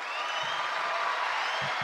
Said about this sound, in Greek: Θέλω να μπουν χειροκροτήματα, παρακαλώ, τώρα.